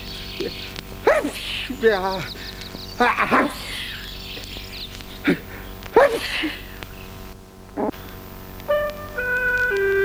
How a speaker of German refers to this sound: Und Sie niesen weiter in der Gegend herum.